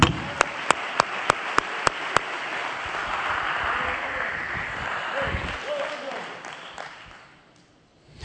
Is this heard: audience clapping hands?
yes